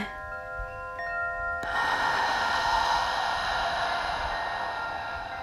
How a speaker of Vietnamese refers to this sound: và bây giờ mình bắt đầu bài tập thở bụng đầu tiên bạn hít vào và thở ra thật là sâu hít vào thở ra